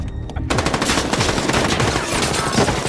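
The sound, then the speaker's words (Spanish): A sudden burst of rapid gunfire erupts after a brief quiet moment, loud, with sharp shots rattling continuously for a few seconds like a machine gun. “Los ursos iban por adelante, a tiro limpio.”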